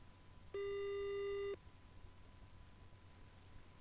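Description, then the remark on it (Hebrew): A single one-second burst of a phone ringback tone as a call is placed, a steady buzzy hum heard over a speakerphone held to the microphone, followed by quiet line hiss with no voices. “יאללה, בוא נתקשר.”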